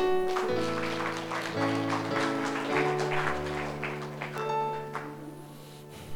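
audience clapping

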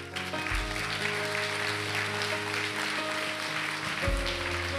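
audience applauding

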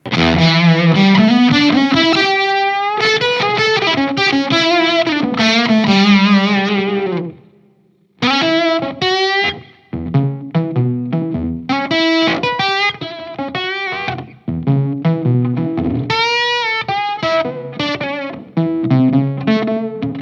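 guitar through overdrive pedal

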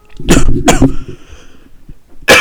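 coughing

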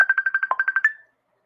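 incoming phone call ringtone

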